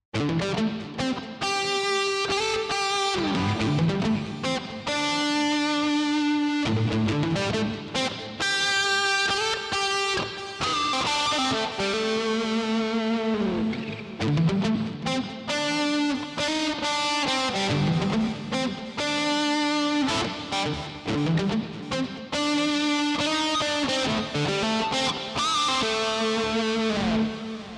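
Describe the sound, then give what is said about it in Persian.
A distorted electric guitar plays alone for nearly half a minute, loud, with sustained gritty notes and bending phrases ringing continuously. “صدای همراه با دیستورشن اون به این صورته”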